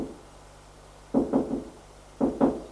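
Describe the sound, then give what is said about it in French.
Knocking several times on a father's door, a quick group of three raps followed by a short pause and two more, dull, with no talking. “le couloir frappe à la porte de son père, frappe plusieurs fois.”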